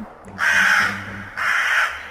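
A crow carrying a peacock tail feather in its beak back to its nest gives two loud, harsh caws, each drawn out for most of a second with a short pause between, over a faint low background hum.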